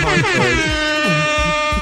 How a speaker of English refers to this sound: I was gonna do a honk honk noise right there, but I didn't have